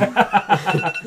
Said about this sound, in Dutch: Dus, eh, dat is mijn wekker, s ochtends die, die ring.